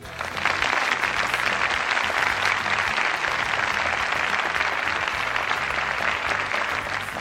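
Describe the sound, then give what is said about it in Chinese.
A crowd applauds steadily, a dense wash of many hands clapping at an even, sustained loudness for several seconds with no voices on top. “又一次创造了中国三大球的奇迹，这里应该有掌声。”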